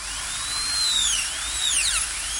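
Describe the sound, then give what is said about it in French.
A dentist's drill whirs steadily at a high pitch, its whine sliding up and down as it speeds and slows, fairly loud with no voices. “Les événements débutent avec un bruit qui fait grincer des dents, c'est le cas de le dire. La fraise dentaire est inventée en 1875.”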